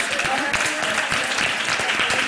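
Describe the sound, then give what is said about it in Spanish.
An audience at an event applauds the women in the audience steadily, a dense, even wash of many hands clapping at once, loud and sustained with no pauses, and faint cheering voices mixed into the noise. “Un aplauso enorme.”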